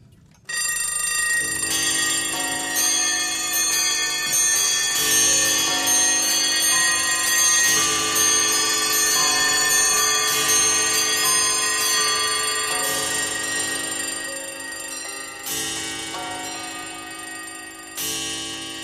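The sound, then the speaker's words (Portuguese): A loud chorus of alarm clocks rings all at once at the opening of a song, their bright metallic bells clanging together continuously for nearly twenty seconds before starting to thin out near the end. No one speaks. “que começa com o som dos despertadores, que já indica basicamente o que vai se tratar a música.”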